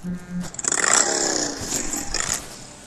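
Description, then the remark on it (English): A phone ringtone of a motorcycle engine revving plays loud for an incoming call, the engine roaring and rising in pitch in a couple of quick throttle swells for about two seconds. “His ringtone is a motorcycle engine revving.”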